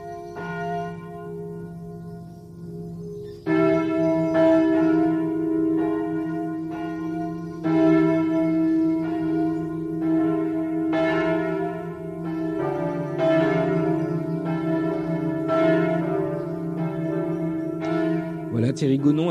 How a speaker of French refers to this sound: vous propose d'écouter quelques cloches que je vous ai sélectionnées